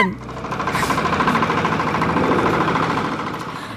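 A power tiller engine chugs steadily, a loud, rough, rhythmic putter with rattling vibration that holds constant throughout, with no voices.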